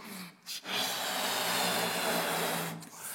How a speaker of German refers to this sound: Also es ist schon nicht easy so einen Luftballon aufzupumpen